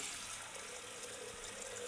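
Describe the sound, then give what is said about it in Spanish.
A steady, continuous rush of water runs into a tall stainless steel Pujadas cooking pot, an even hiss of liquid filling without pause as plenty of water is added for cooking ribs, with no voices over it. “Y en este pote vamos a poner agua, bastante agua”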